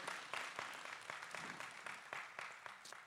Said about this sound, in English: Yeah, come on, give her a hand clap. That's awesome.